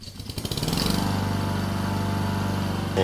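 A lawn mower engine sputters to life with a few quick pulses, then settles into a steady, loud, buzzing drone, with no voices.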